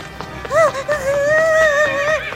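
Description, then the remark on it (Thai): A horse whinnies in a long, wavering high-pitched call, preceded by a short rising neigh, with a few soft hoof clops underneath. No one speaks. “มันเดวเริ่มไปหาเจ้าม้าก่อน”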